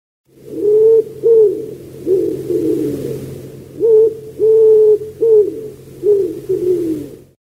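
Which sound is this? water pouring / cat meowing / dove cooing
dove cooing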